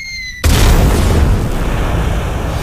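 A bomb explosion bursts in suddenly after a faint high tone, then a loud, sustained low rumble with crackling debris continues for over two seconds without fading much.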